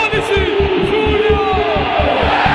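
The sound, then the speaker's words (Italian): A huge crowd at San Siro stadium during the Milan derby roars loudly and continuously, with a steady rhythmic pulse running underneath like chanting or clapping in unison, filling the whole space with dense noise. “Lo stadio è una bolgia totale, soprattutto quando Mourinho decide di prendersi completamente e in maniera definitiva il cuore dei tifosi, incitandoli come un capultrà dalla sua panchina.”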